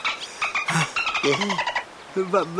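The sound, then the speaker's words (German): A female dolphin chatters in a rapid run of squeaky, warbling whistles and chirps, fairly loud, with a few lower, voice-like squeals mixed in near the end. “Unsere Delfindame bedankt sich dafür, dass wir sie nach Hause gebracht haben.”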